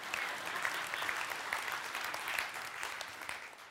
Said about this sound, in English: But I decided, go ahead, clap. You're gonna make me preach better if you do.